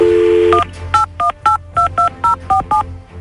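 A steady dial tone gives way to a quick run of about ten telephone keypad tones, each a short two-pitch beep in an even rhythm, loud and close with no one speaking.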